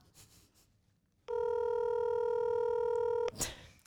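A phone call ringing tone for an outgoing call: one steady, loud electronic tone lasting about two seconds, clear, followed by a brief rustle with no talking.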